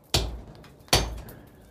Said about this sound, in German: Das ist im Vergleich zu dem weichen Gestein, das aus dem Berg herausgekommen ist, ganz ein harter Stein. Und auf dem wurde das weiche Gestein von Männern zerklopft. Ich hau jetzt da gerade mal drauf.